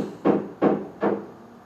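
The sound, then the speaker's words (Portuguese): Three evenly spaced hammer blows ring out as someone does DIY work, each a solid thud with a short decaying tail, landing in a steady rhythm with no talking. “É mesmo martelado, é mesmo martelo. Por aí, está a fazer qualquer coisa. Bricolage.”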